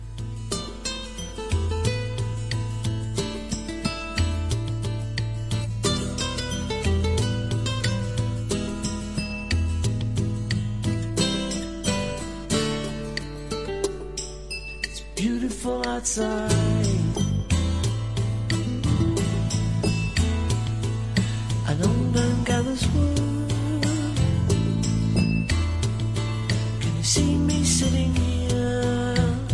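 A bolero-tinged pop song plays steadily throughout, with a repeating bass pattern under full, bright instrumentation that grows slightly louder and busier about halfway through.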